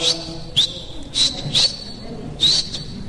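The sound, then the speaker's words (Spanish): A person whistles as a greeting: a few short, high chirps with upward-sliding pitch, moderately loud, in quick bursts separated by brief pauses over a quiet background. “Ya, está chiflido, ya, hicimos conecte, ya.”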